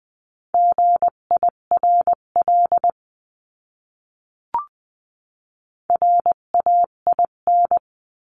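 Morse code at 16 to 20 words per minute: a steady mid-pitched tone keys out two quick bursts of dots and dashes spelling a word, separated by a pause with a single short click, with no voices.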